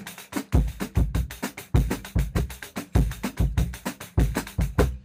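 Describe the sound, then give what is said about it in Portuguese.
A busy samba groove played on pandeiro, surdo and clave, with steady jingling pandeiro strokes over deep, pulsing surdo thumps and crisp clave clicks, fairly loud with no voices. “Se eu estou estudando esse samba no pandeiro, olha só. Pandeiro, surdo, uma clave, né?”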